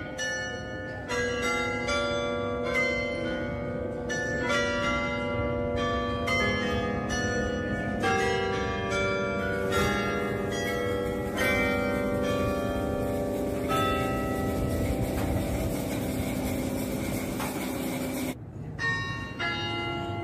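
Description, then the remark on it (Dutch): Bells ring out a contest-winning melodic quarter-past-the-hour chime, a quick run of overlapping, resonant strikes that rings steadily for about eighteen seconds before stopping and fading away. No one speaks. “hoorden eerst de Domien Verbeek, kwart over”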